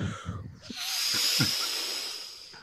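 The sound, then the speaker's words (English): A voice imitates soothing ocean waves with a long, steady, breathy shushing hiss that swells and fades over about two seconds, fairly loud, with faint vocal murmurs mixed in. “I'll just make some soothing ocean sounds for you.”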